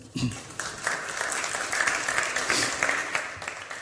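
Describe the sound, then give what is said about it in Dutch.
An audience breaks into sustained applause, a dense wash of many hands clapping at steady volume throughout, with faint voices mixed in underneath. “Een applaus voor hen.”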